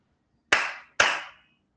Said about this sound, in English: apparently it doesn't sound i don't know why it's kind of weird but uh, it sometimes function I think it's the variety of your claps that you have to make.